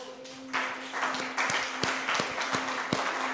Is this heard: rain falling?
no